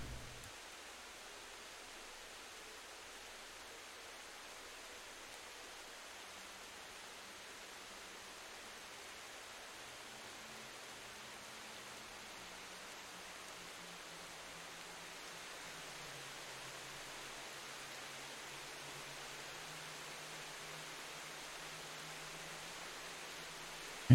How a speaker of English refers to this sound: So come inside. Airy place. The sound of rain obviously subsides.